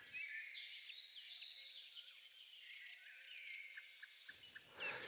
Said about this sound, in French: Et les chants des oiseaux sont les chants des descendants de ces survivants.